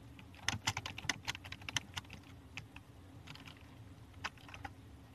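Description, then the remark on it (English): Rapid, irregular clicking of keys on a computer keyboard, moderately loud, in bursts with brief pauses, over a low background hum. “So in the Gospels, in the first generation, let me see if I can get it up here typing.”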